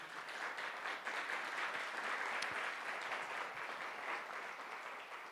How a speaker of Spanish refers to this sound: Yo quiero que le den un aplauso a sus pastores por ello.